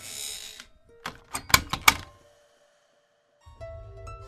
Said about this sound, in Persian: فکر خیلی از ماها میره سراغ اینکه با همسرت خدافسی کنی بگی 7 ساعت دیگه میای خونه یهو زودتر برگردی کلیدو بندازی در رو باز کنی